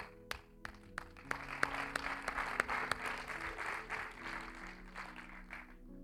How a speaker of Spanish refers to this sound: Un aplauso.